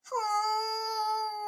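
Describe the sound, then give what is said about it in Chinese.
A voice imitates a crying child, playing the little dolphin character in a children's story, with one long, steady wail, rising briefly at the start and then holding a high, even pitch for over a second. It is fairly loud and heard alone. “小海豚哭了。”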